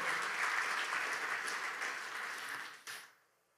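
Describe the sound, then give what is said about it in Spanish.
A church audience breaks into sustained, dense applause after a sermon, a steady wash of many hands clapping that holds strong for about three seconds, then gives a final surge and quickly fades out. “Denle un fuerte aplauso si recibió.”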